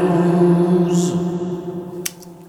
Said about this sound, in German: wir haben hier im Moment äh, per Cent habe ich den Gesang auf einen Bus geschickt und auf dem Bus ist halt dieser Lexikon-Hall, den wir hier gerade gehört haben, ne? der 480L.